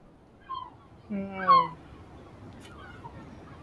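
A single seagull cries out once in Marrakech, Morocco, a short, harsh, wavering call rising above a quiet background, preceded by a brief fainter squeal.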